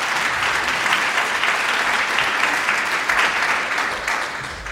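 Sustained audience applause for two guests being welcomed on stage, a dense steady wash of many hands clapping at full loudness, tapering slightly toward the end, with no voices audible over it.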